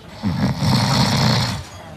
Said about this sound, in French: Alors, écoutez la différence, un ronflement d'homme, c'est ça.